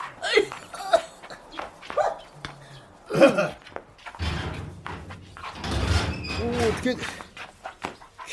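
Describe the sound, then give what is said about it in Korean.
A dog running about in the rain barks in a few short, sharp bursts spread over the first few seconds, followed by a longer stretch of steady rushing, rustling noise. “어지간히 뛰고 짖거라 그냥 빗속에 콕콕 쑤시고 사방에 어찔거려서 정신 사나워 죽겠다”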